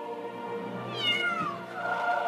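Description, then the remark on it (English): A cat meows in a couple of drawn-out, rising and falling cries, clear, with no talking over it. “I got to tell you, meow.”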